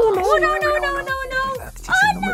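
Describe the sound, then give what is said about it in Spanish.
Dogs whimper and whine in high, wavering tones, broken by a few short, sharp yelps. The sound is continuous and fairly loud across the whole stretch. “Momento de meter a los perros a dormir.”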